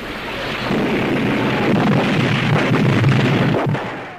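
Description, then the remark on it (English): A sustained, loud rumble of bombing explosions in a 1964 film soundtrack, with dense low booms and crackling debris, rolling continuously for several seconds before easing off at the end. No one speaks. “They bombed it.”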